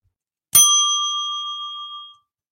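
bell ding

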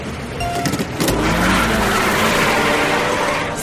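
race car engine revving

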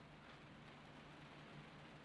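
rain falling outside

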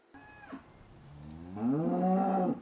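cow mooing

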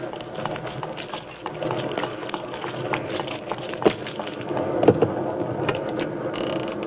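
heavy rain with thunder

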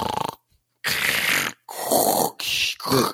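snoring

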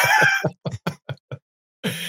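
dog grumbling

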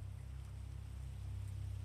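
rain falling

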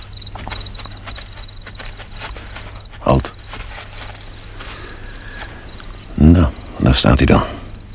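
footsteps walking

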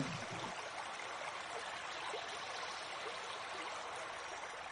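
river stream flowing

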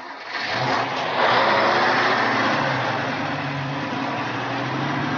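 truck engine running

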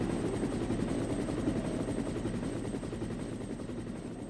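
helicopter

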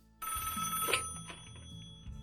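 telephone ringing

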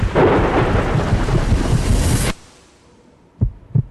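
thunderstorm with rolling thunder

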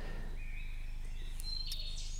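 bird chirping in background

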